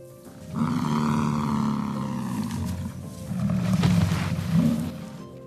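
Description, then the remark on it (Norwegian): A bison, the national mammal of the USA, bellows in deep, rumbling roars, one long drawn-out call followed by a second rough surge, loud with no voices. “Dette er USAs nye nasjonaldyr.”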